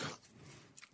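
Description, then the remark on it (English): A single quick sneeze bursts out sharply at the start, then trails off into quiet room noise. No one speaks. “Bless you.”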